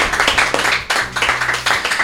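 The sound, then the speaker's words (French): A small audience applauds a guest on a radio show: a dense patter of many hands clapping at once, fairly loud, keeping a steady crackling texture for a couple of seconds with no voices over it. “Et voilà Effectivement, hein, depuis mardi, notre invité c'est Olivier, qu'on pourrait applaudir Olivier ah, Persin.”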